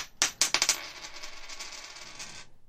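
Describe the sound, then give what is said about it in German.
A coin is tossed and drops onto a hard surface with a few quick metallic clinks, then spins and rattles briefly before settling, landing heads. Fairly quiet, with no voices. “Ja, genau, lass uns Münze werfen.”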